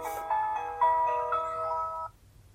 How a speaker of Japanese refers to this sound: これ聞いたことあるわこれだ、15山手線の新宿駅発車メロディです。